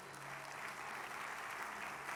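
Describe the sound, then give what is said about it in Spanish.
An audience claps steadily together as applause to God during a sermon, a dense, continuous patter of many hands with no voices standing out, holding an even loudness throughout. “El que lo crea, dele un aplauso a Dios.”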